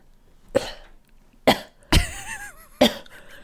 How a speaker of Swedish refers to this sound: Du kan väl göra gör någon liten heads-up innan du blir hostsugen nästa gång ska jag vara framme med kameran.